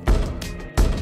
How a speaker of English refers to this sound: But just then, the clock struck midnight and there was a knock at the door.